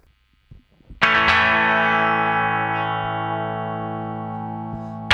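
A distorted electric guitar run through an effects unit strikes one loud chord of a tune in a normal major key that rings on and fades slowly for about four seconds, after a few faint soft knocks.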